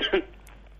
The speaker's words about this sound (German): Ja, Gesundheit.